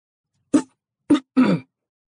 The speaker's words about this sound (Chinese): 赵副官又被生生的干呛住了，猛地咳嗽了两声。